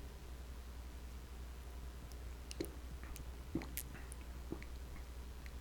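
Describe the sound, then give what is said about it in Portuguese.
Small, close-up mouth sounds of someone sipping and swallowing water: a few soft wet clicks and gulps spaced a second or so apart over a steady low hiss, with no talking. “Toma, tomar até um golinho de água para dar pro cérebro dar aquela resfriada.”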